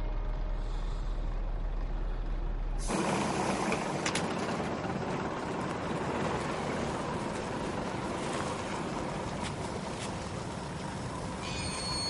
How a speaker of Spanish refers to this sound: Julius camina mientras el autobús comienza a andar.